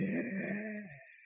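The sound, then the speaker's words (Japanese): A single low, drawn-out croaking groan lasting about a second, as a voice mimics the hourly bird-call chime of a clock with bird pictures, which had started sounding warped and slowed down due to an internal fault, then it cuts off into quiet. “普通にあの、ポッポンみたいな感じで、こう鳥の鳴き声がするんですけども、ある日突然にその鳥の声というものが、こう、非常にね、なんかこう、回転数を落としたようになって”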